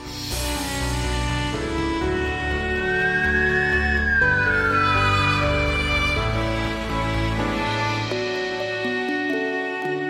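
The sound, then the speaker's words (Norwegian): The alarm at the Tromsø fire and rescue station in Norway blares steadily for about ten seconds after an avalanche on Reinøya, loud, with layered electronic tones and one pitch sweeping up and back down in the middle. No one speaks. “Da går alarmen på stasjonen.”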